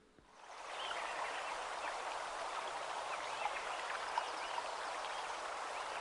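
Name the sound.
flowing stream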